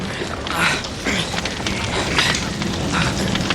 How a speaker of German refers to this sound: Hört doch! Es fängt an zu regnen!